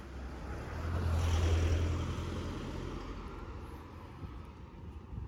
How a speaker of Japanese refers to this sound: あ車が。